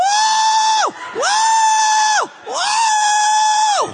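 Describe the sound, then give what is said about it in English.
A person howls three times in a row, each a long, loud, sustained wail with a rise at the start and a falling drop at the end, separated by brief pauses. “And I'm just, I keep howling,”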